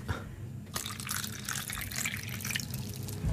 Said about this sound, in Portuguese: Olha, eu estou super feliz, isso, acima de tudo porque não fazia ideia que tu eras capaz de fazer isso sem lixar o microfone. Não foi incrível, não foi incrível. Uh, tão simples como isto, malta. Água, água.